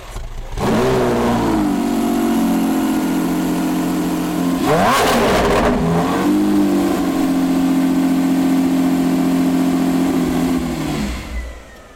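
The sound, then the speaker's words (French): An old collector car engine starts up loud, with steady harmonic rumble, a sharp revving burst near the middle, then settles back into a strong, even drone before cutting off. No voices. “Vous avez non pas du bruit, mais une musique. Non pas une odeur, mais un parfum du cuir.”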